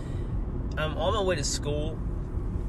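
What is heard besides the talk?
car interior road noise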